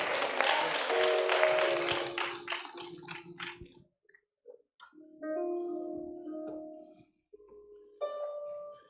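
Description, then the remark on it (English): A crowd claps loudly and steadily in praise of the Lord for about four seconds over sustained organ chords, then the clapping fades out and the organ keeps playing held notes on its own. “Give the Lord a hand and clap, clap of praise.”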